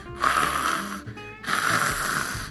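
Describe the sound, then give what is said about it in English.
A voice makes two drawn-out, guttural throat rasps, the French letter R as pronounced in the word "orange", fairly loud, separated by a brief pause, with no words spoken. “So at times, although uh, it's not necessary, but um, just to just to be an expert, um, the letter R in French language sounds.”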